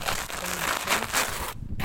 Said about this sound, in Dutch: van die steentjes die normaal gesproken tussen de voegen uiteindelijk van de tegels worden gelopen, die liggen hier nog gewoon. Die, dat hoor je knisperen. Zo nieuw is het.